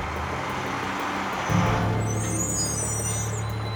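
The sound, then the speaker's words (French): A heavy truck carrying pigs to Alabama, USA, rumbles along with a low, steady engine drone that swells louder partway through, joined briefly by a thin, high hiss; no one speaks. “Il apporta des cochons dans un camion jusqu'à Alabama aux États-Unis.”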